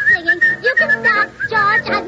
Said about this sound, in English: Well, … whistles too.